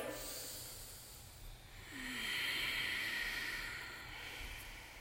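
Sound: ujjayi breathing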